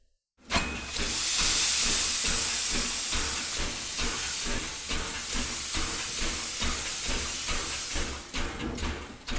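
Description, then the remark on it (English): A steam train pulls away, a loud burst of hissing steam over rhythmic chuffing that repeats steadily for several seconds, with no voices. “The train took off, leaving Mira and Alaa behind.”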